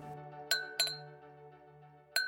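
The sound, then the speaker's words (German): Two wine glasses clink three times, ringing out brightly, two clinks close together near the start and one more after a pause, each leaving a sustained, shimmering tone. Clear, with no talking. “holt jetzt eine Flasche Rotwein und zwei Gläser aus der Küche.”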